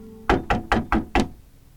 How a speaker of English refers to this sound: Oh, wait, I think that's you knocking on my door.